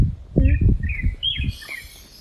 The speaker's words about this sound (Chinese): 我可以学这个鸟声，拿口哨什么。